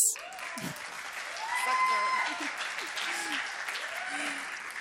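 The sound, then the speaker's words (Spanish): Audience applause in the Sala Julián Carrillo on a Friday night of Radio UNAM's Festival Intersecciones: dense and steady clapping that swells slightly midway and carries on throughout, with a voice faintly audible underneath. “Esta noche se escucha el aplauso porque es viernes de intersecciones.”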